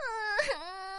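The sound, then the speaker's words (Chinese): A voice performs the crying of a tearful princess in a children's story as rain begins to fall, a drawn-out, high-pitched wail on one sustained tone that bends upward, dips, then holds steady, heard alone for about a second with no speech. “泪汪汪公主哭得更厉害了。”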